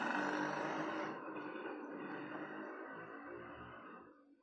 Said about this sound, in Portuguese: Ai, aí a moto. Ó a moto. A moto. Olha a moto.